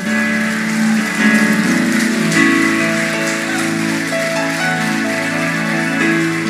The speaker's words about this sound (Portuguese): Aplauda o Senhor Jesus, por favor.